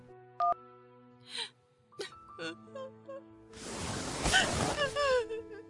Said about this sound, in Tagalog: Oh, ba't ka umiiyak?